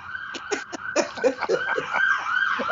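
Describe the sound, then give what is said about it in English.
Emergency vehicle sirens wail continuously, a steady rising-and-falling tone layered with choppy bursts of noise, moderately loud, with no voices. “because the if she if she wins well, we've got the sirens”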